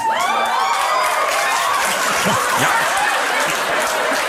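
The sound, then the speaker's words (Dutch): The Tonight Show with Jimmy Fallon audience breaks into steady applause, reacting to news that the 2020 census showed the number of white Americans went down. The applause is mixed with cheering and a few whoops, the sustained clapping loud and dense throughout, with scattered laughter rising underneath. “Applaus voor een nieuwsbericht dat het percentage blanke Amerikanen aan het afnemen is.”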